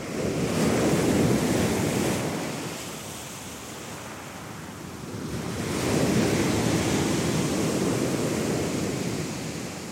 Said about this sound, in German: Jetzt stelle ich mir vor, wie ganz viele am Wasser sitzen, die Energie des Meeres aufsaugen und das Rauschen durch ihre Ohren durchziehen lassen.